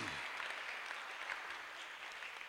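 A crowd claps together in a steady, dense wash of applause that holds at an even loudness throughout, with no voices standing out above it.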